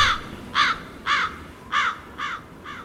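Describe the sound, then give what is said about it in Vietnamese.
A series of five harsh crow caws around a lake, evenly spaced about half a second apart, clear over a faint low background rumble, with no voices present. “tiếng quạ réo vòng hồ”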